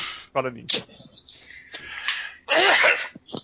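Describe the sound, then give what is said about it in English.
One loud sneeze bursts out near the end, preceded by short vocal sounds and breathy noises from a person. “No, I just sneezed.”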